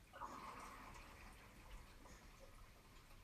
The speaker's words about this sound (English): You hear that rush just then? That's my, my glass becoming empty.